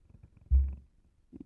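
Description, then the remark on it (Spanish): A brief, loud, low-pitched electric buzz from a suction vibrator used against a woman's clitoris lasts about a third of a second, then fades, followed by faint soft rustling. No one speaks. “lo que más me gusta es el ruido del succionador contra su clítoris.”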